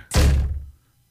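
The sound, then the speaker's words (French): A single dull, heavy thump of someone bumping into a freshly washed glass patio door, loud, with a brief low rumble that fades within half a second. No voices. “Elle venait juste de laver à porte patio. C'est pas une blague.”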